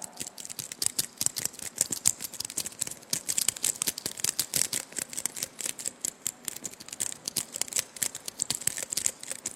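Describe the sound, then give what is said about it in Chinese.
A foley recreation of eggs being wrapped, demonstrating the egg-wrapping sound from the film A World Without Thieves: dense, rapid crinkling and rustling, like paper being folded and scrunched, in a steady flurry of sharp crackles with no voices. “就是我们天下无贼的时候，那个包鸡蛋的时候，一那个包的那个过程的那个东西，我给大家简单的演示一下。”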